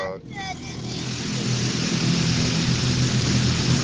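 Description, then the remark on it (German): An automatic car wash runs over a car: a steady, loud rush of spraying water and machinery rumble that builds and holds throughout, with a brief voice at the very start. “ja, ich bin jetzt nur noch mal schnell eben mit dem Auto in die Waschanlage rein, weil das echt ziemlich dreckig ist.”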